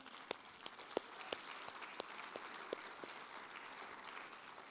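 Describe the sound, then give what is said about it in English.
An audience applauds the praise team, a dense, sustained wash of many hands clapping at moderate volume, with a few sharper individual claps standing out near the start. “Can we give a round of applause to the praise team?”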